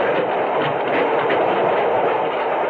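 A steady, continuous rumble of a freight train rolling along the tracks across dusty farmland, fairly loud, with a dense hissing roar that holds even throughout and no voices.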